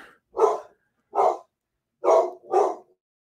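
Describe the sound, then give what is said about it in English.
A dog barks four times, loud and sharp, in an uneven rhythm with two quick barks at the end and short silences between. “Here, let me try to see if I can get this dog done.”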